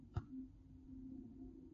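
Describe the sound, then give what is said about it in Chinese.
A brief click, then a steady pure sine tone from a single synthesizer operator, at a single low-mid pitch with no overtones, holding evenly and fairly quietly until the end. “A 就是一个正弦波，纯净的正正弦波，在自然界中是不存在的。”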